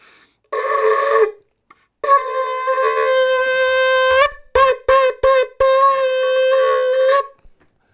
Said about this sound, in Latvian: Tā kā pūtiet uh, tauri tam kungam, jā